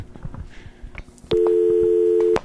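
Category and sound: household object, telephone ringing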